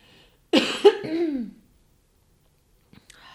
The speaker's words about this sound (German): Ich muss mich mal räuspern.